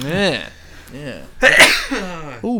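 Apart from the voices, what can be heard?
sneeze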